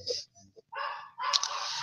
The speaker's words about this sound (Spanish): Eh, ese es mi perro. Llegó alguien. Así que es el escándalo que hace siempre.